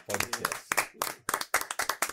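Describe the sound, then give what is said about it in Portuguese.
An audience breaks into applause to close the session, a dense run of sharp, rapid claps that rise and fall in loud bursts, with a few voices mixed in under the clapping. “E nós vamos encerrar, como sempre, encerramos com uma salva de palmas aí o nosso”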